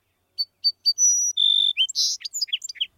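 A song sparrow sings a clear phrase: three sharp introductory notes, a sustained buzzy trill, then a rapid jumble of varied chirps and twitters. No voices or other sounds.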